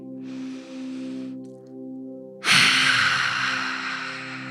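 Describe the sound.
A short breathy inhale, a pause, then a loud, forceful roaring exhale with mouth and eyes open and tongue out, done as a breathing exercise while sitting on the heels. The raspy breath fades slowly over a steady background hum of tones.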